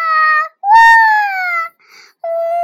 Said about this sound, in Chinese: 宝宝不回答。只是又哭又叫，声音越来越响。